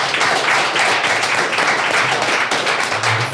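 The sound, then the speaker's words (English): A crowd at Conversion Hotel applauds Bart Schutz and Roger Dooley after the final session, many hands clapping together in a dense, loud, even wash of sound that holds for several seconds without letting up. “Ladies and gentlemen, a warm applause for Bart Schutz and Roger Dooley.”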